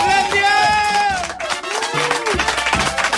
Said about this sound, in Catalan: Aquest aplaudiment pel Guillem Albà.